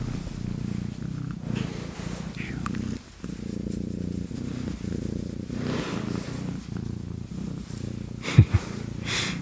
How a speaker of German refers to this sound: Komm, leg dich mal hier hin. Ich drehe mal das Mikrofon ein bisschen. Vielleicht hört man sie dann schnurren.